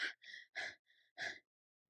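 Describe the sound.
A voice imitates heavy, out-of-breath panting: five quick alternating breaths, loud gasping inhales and softer exhales in a steady rhythm, with no talking.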